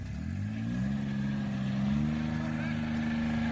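A small engine drones steadily up close, its pitch rising as it revs and then holding a rough, constant hum, like an off-road four-wheeler pushing along through rough ground.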